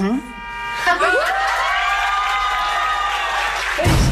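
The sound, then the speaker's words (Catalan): A group cheers and applauds, with a rising whoop of voices that settles into sustained, steady cheering over a dense clatter of clapping, loud throughout the few seconds. “s'aplaudeixen, s'abracen, s'estimen...”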